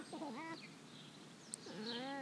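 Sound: cat in heat meowing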